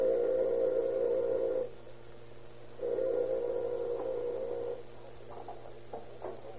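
A house doorbell rings twice with long, steady buzzing tones, each lasting close to two seconds with a short gap between them, fairly loud over a faint low hum and no talking.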